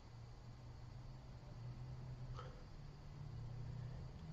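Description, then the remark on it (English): Vehicle brakes outside give a short, faint squeal and hiss partway through, over a steady low engine rumble and background noise. No one speaks. “Okay, now I think you're just playing with the brakes.”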